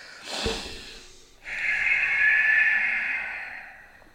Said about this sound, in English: I do a big breathe in and I just push it out of my nose. So it makes a weird noise.